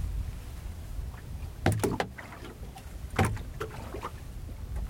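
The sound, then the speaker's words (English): Water laps gently against the side of a boat floating with its engine off on the surface of the Sea of Cortez, with a few soft, irregular slaps and splashes over a low, steady wash. The sound is calm, and no one speaks. “Very peaceful, tranquil, water lapping gently up against the side of our boat.”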